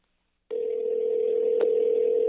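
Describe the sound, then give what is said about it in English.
After a brief silence, a steady electronic telephone ringing tone starts and holds unbroken to the end, clear and fairly loud, like a call ringing through on the line with no voices; the call goes unanswered. “is not picking up the phone right now”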